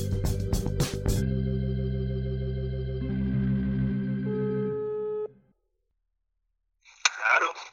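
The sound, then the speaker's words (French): A few quick clicks give way to a steady, droning ringback tone of an outgoing telephone call that holds for several seconds, then cuts off into silence before a brief voice-like sound at the end. “tous les deux jours, je téléphone à des confinés pour parler de leur frigo et de leur assiette.”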